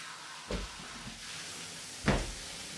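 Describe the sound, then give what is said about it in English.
A front door opens with a dull knock, then about a second and a half later closes with a firmer thud, with no talking. “As I climbed into the shower, I heard the front door.”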